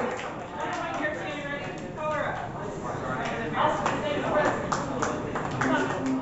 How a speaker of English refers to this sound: All right, y'all, put your hands together for your next poet of the evening. This is an endurance clap, y'all.